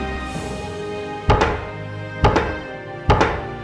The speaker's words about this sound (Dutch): Een hamer. dat klopt.